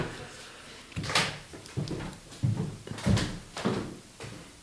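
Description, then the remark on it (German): A drawer slides open and shut, with a series of wooden knocks, scrapes and rummaging thumps spread over a few seconds as someone fetches incense from it, moderately loud, with no talking. “Hast du noch Räucherwerk, was wir aus der Schublade ziehen können?”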